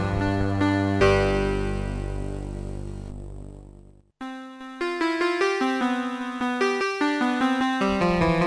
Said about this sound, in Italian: Senti il virtuosismo alle tastiere.